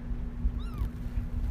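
A single short meow from a male pet cat, a quick rising-then-falling cry, cuts through a steady low hum and rumbling background noise. It's fairly faint, with no voices around it.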